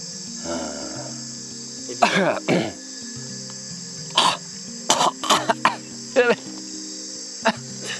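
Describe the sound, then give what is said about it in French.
A person coughs and clears their throat after swallowing a mosquito, harsh bursts in irregular clusters, while a steady high chorus of crickets buzzes underneath throughout in the jungle. “Va-t'en bah, de ma gorge. Ah non, j'ai dégluti, je l'ai senti.”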